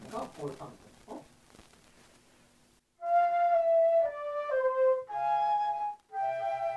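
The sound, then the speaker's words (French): After a few seconds of talking, two flutes play a slow melody together in unison, sounding like one clear, sustained instrument moving through held notes, loud. “l'impression qu'il n'y a qu'une seule flûte. C'est ça que veut dire un unisson.”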